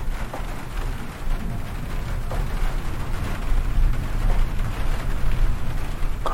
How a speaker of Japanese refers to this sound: 雨、雨強くなってきたな。めちゃくちゃもうすごいね、雷暴れ回ってますね。